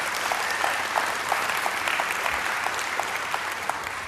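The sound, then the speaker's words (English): Steady, dense applause from a crowd, a continuous wash of many hands clapping at an even loudness for a few seconds, with no voices standing out. “And right about now, I should have got the best applause that I've gotten in a long time.”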